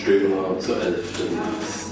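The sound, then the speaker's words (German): Faint metallic clinks of cutlery being sorted in the background, scattered and irregular, mostly buried beneath a person talking. “Im Hintergrund wird Besteck sortiert.”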